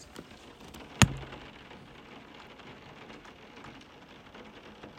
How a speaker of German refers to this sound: Hört ihr gerade den Regen?